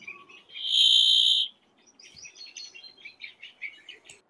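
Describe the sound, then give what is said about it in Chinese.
Calls of a newly arrived flock of bramblings that has joined grey-capped greenfinches: a loud, buzzy sustained note opens, then a busy stream of short, high chirps and twitters overlapping in an irregular patter. “哎，不对，那是燕雀，新来的是燕雀，燕雀和金翅雀合在一起去了。”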